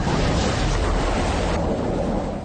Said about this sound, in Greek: Σε άλλο βίντεο, ένα από τα τούνελ γεμίζει νερό.